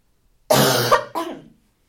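Two harsh, explosive coughs in close succession, loud, the first longer and raspier, the second shorter and trailing off, with silence before and after.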